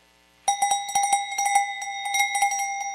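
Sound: cowbells ringing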